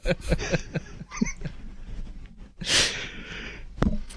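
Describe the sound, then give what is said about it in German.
Heavy, close breathing right against a microphone: several short huffs and snorting puffs, then one long, loud rushing exhale, with no talking. “Ich werde jetzt einfach mal ein bisschen anfangen, schwer ins Mikrofon zu atmen.”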